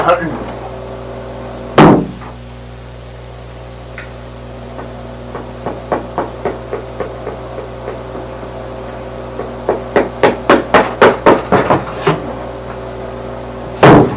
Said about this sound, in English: I have the key, sir. Now, unlock the cell door. Okay, let me unlock the cell door, sir